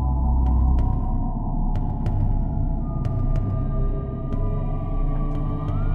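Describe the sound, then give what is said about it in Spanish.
An eerie, drawn-out whistling tone that lasted for hours hangs steadily over a deep, constant rumble, with a few faint sharp ticks scattered throughout, loud and continuous for the whole stretch. “Este silbido siniestro duró horas.”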